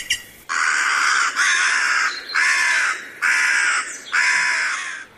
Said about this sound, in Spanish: Urracas y cornejas se hicieron más parleras